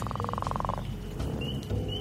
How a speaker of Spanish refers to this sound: Y justo, cuando empiezo a asimilar la incomodidad de estar en medio de la selva, en un país extraño, y posiblemente rodeada de arañas, empieza a diluviar. Se escuchan ranas por todos lados, y yo siento que los sonidos cada vez son como más fuertes.